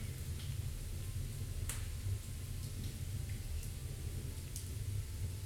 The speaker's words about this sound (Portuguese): A lareira, a lenha sendo queimada. Então vai ser uma experiência muito gostosa aí.